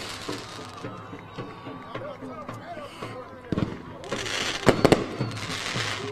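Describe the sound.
Fireworks crack and boom over a noisy crowd, with one sharp burst midway and a tighter cluster of loud pops shortly after, all set against a steady background of voices and commotion.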